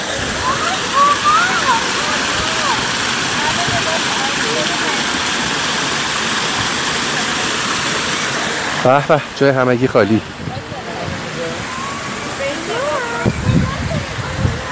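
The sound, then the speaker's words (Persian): An artificial waterfall roars steadily up close, a loud, continuous rush of splashing water filling the whole recording, with a man briefly speaking over it partway through. “خب یکم جلوترش یک آبشار مصنوعی هستش که الان میام کنار شما این صدا رو بشنوید و یکم لذت ببرید”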